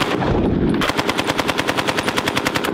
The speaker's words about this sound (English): Gosh, that's beautiful. That's the Browning automatic rifle, the BAR, if you will.